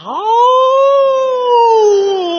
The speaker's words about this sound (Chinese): 狼啊，他上这儿干嘛来了？ 过去这是他住的地儿啊。